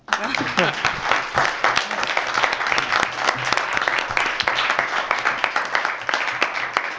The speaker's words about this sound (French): S'il vous plaît, on, va, on adore applaudir. Applaudissez-la.